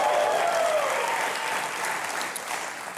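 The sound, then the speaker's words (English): A studio audience, reduced to about 25% of its normal size because of COVID, applauds steadily and loudly, with a few whoops and cheers rising over the dense clapping throughout. “But these folks, about 25% of what we would normally have, but they sound like 100%, and we're so happy.”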